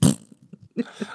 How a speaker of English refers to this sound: Did you just fart in the promo? Yeah.